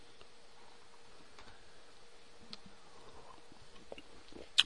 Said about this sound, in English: What is that? Coins? Again? Again with the coins.